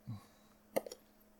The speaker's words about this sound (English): Oh, that's just my dice. Give me a second.